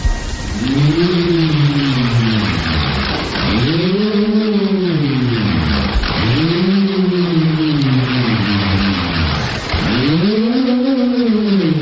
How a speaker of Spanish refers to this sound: Se trata de un trozo de hueso, de astilla de hueso, probablemente cogida con un cartílago de ciervo que se hacía girar